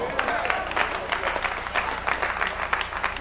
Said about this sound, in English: Oh, the hand claps standing out.